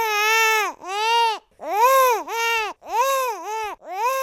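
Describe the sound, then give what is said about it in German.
A newborn only days or weeks old cries loudly and alone in a series of about five drawn-out wails, each with several rising-and-falling melodic intervals, separated by brief gasps for breath. “Aber wie kann es möglich sein, dass Babys schon wenige Tage oder Wochen nach der Geburt in der Melodie der Sprache ihrer Umgebung weinen?”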